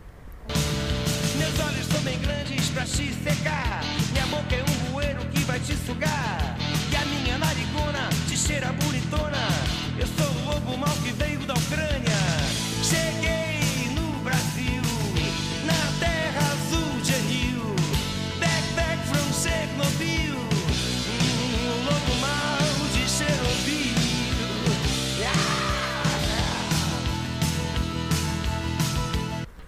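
A Brazilian rock song plays steadily at full volume for about half a minute, with a dense full-band sound of driving drums, guitars and bass and no pauses.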